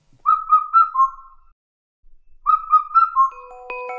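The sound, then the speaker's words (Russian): An Indian cuckoo calls twice, each time a clear whistled phrase of four descending notes, fairly loud, with a short silent pause between the two phrases and no talking. “Индийская кукушка.”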